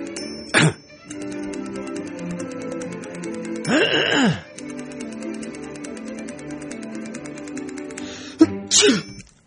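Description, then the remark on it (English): A sneeze bursts out among a few short, sharp noises over a steady background drone of sustained musical tones; no one speaks. “Bless you”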